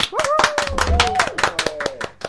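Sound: applause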